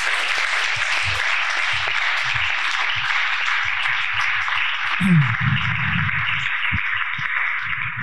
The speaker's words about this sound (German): Ganz, ganz fetter Applaus.